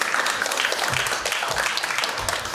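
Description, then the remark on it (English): A crowd at a conference applauds a speaker invited on stage, many hands clapping at once in a dense, continuous patter of sharp claps that holds at an even loudness throughout without any voices. “So an applause for”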